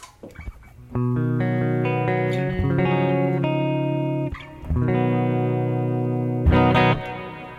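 A distorted electric guitar plays a few quick picked notes, then four loud, sustained chords in turn, each ringing out with a subtle hall reverb from a reverb pedal on its Grand Hall setting. No one speaks.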